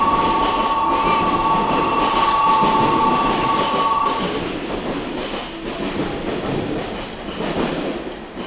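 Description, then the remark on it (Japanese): A local electric train bound for Daiyūzan pulls away on its :24 departure, next stop Midorichō, a steady tonal whine sustained for the first few seconds over dense rumbling and rattling that continues as it moves off, fairly loud. “24分発大遊山行き発車いたします。”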